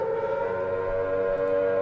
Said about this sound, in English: Well, I guess uh can could sound some sirens. Perhaps. Yes.